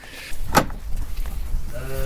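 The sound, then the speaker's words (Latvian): Sheep and newborn lambs bleat inside a barn, with a short sharp cry early on and a longer, quavering bleat at the end, over low shuffling noise. “Ko tu jums šitie jāri sadzimuši?”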